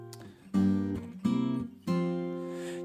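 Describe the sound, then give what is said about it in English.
Three chords strummed on a stringed instrument, played with the top note of the G chord dropped, evenly spaced and ringing out between strokes, fairly loud with no one talking. “And then I just dropped the first, the top note of G. And play the same thing.”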